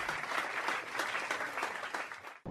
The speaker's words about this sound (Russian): Тут должны быть аплодисменты.